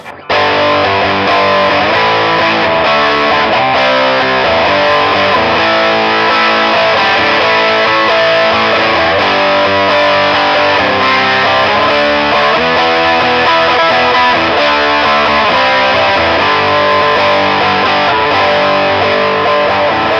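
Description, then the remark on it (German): An electric guitar played through a distortion effects pedalboard with a compressor placed in front plays a steady run of chords and notes, thick and saturated with a compressed, sustained tone, loud and continuous for the whole stretch with no talking. “hat jetzt zwischendurch mal noch den Kompressor so.”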